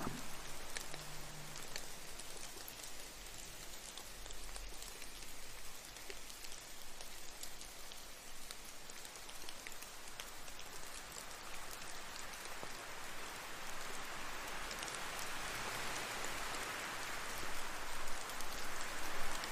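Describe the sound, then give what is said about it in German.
Steady rain patters continuously onto a hard surface, a dense, even hiss of drops with faint individual splashes, holding a constant level throughout with no voices. “Und du verspürst Vorfreude auf alles, was nach dem Regen passieren kann.”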